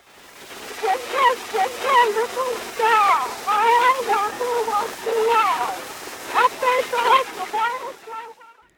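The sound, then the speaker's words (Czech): An old phonograph cylinder recording of an Edison talking doll for children, digitized in 2015, with a thin, high voice singing a short song through heavy hiss and crackle. The warbling, distorted vocal plays alone for several seconds. “Edison uvedl na trh mluvící panenku pro děti. Ta měla v sobě integrovaný váleček s fonografickým záznamem”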